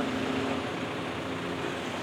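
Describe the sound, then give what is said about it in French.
The rear engine of an Eliès city bus, developed in the 1990s by RTM and E-Liège for Marseille, rumbles steadily at a low pitch. It is a continuous deep drone with a faint hum on top, constant in level for the whole stretch, with no voices. “Vous l'entendez là Il s'agit d'un bus de la marque Eliès avec le moteur à l'arrière.”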